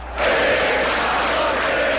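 A large crowd of supporters sings happy birthday together for a man celebrating his birthday, a loud, sustained wash of many voices swelling in after a brief moment and filling the whole stretch without pause.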